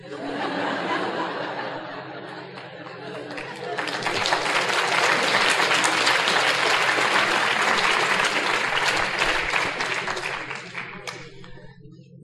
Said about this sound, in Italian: Beh, visto che mi avete fatto un applauso, vi racconto una cosa